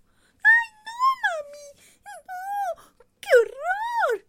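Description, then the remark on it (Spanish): A dog named Winnie whimpers in a series of high, wavering whines, rising and falling in pitch, with short pauses between them and a louder, longer cry near the end; no one speaks. “Pues claro que no, Winnie, pues por eso, por eso no te dejé.”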